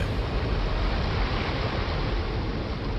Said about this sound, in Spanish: Y mientras lo hacía, el niño escuchó un fuerte estruendo. El agua del río irrumpió a través del dique hacia la pequeña villa.